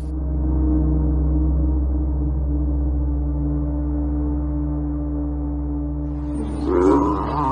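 A dog named Odi growls low and steadily for several seconds, a deep continuous rumble, then flares into a louder, rougher snarl near the end.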